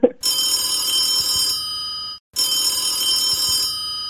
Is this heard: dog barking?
no